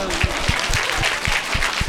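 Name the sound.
audience applause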